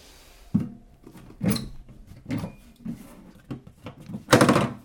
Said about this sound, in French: ouverture de la boîte magique.